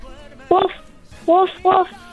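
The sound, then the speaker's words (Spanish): A child's high voice imitates a small dog's yapping: one short yip, a pause, then two quick yips close together, each bright and clear. “Ahora haz el ruido de un perrito más chiquito.”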